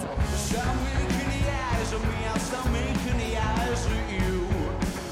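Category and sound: rock concert recording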